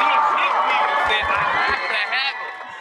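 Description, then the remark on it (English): A loud, continuous burst of audience cheering and applause, with many overlapping voices whooping and a few low thumps in the middle, easing off slightly toward the end. “Hit that applause again.”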